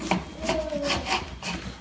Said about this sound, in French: Avec ça, on coupe le, la tranche d'orange. Attention.